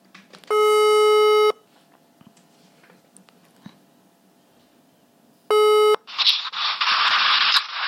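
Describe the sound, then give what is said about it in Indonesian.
A telephone ringback tone sounds as two steady electronic buzzes several seconds apart, the second cut short, followed by loud hissing line static, while a call is placed to a university friend. No one speaks. “Kita coba telepon.”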